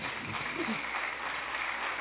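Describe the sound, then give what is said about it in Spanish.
An audience claps together in a steady, dense wash of applause that holds an even loudness for about two seconds, with a faint murmur of voices underneath. “Cuando usted, denle un aplauso.”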